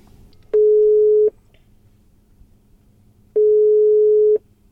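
Two long steady telephone ringback tones, each lasting under a second, separated by a pause of a couple of seconds, heard clearly over a faint low background hum.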